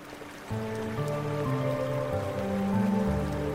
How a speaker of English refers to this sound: Imagine that you're standing in the middle of a room. It's enormous, made of marble, and full of statues. You can hear water rushing all around you.